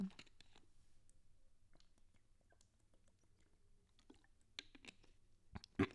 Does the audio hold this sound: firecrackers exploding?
no